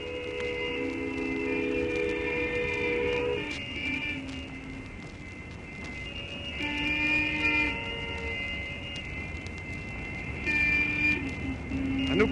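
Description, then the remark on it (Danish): Several car horns on the road near the Tørstebro bridges into Tisted Amt, Denmark, honk together in long, overlapping blasts, answering a ferry's farewell salute, coming in three waves with brief lulls between, fairly loud over a steady rumble of engines and wind. “Bilerne herinde på vejen hilser den igen.”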